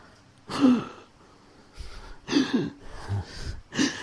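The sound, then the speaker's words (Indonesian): A person imitates the labored, gasping breaths of a panicking COVID patient: four or five sharp, noisy gasps in an uneven rhythm, moderately loud, with no words spoken. “Makanya Bapak Ibu kalau penapasan COVID sudah bermasalah ditambah kepanikan, gemetar jantung, ngos-ngosan, uh langsung apa? Napasnya satu satu.”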